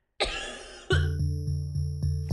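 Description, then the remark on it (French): Two harsh human coughs about a second apart, the second one fading into a steady low electronic hum that carries on to the end. “quantifier le symptôme en détectant la toux, la fréquence à laquelle les gens toussent”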